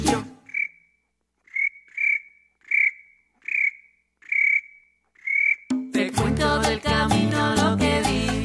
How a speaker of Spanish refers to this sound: El grillo, el grillo.